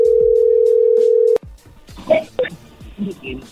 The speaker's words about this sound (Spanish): A ver, ahí se está marcando.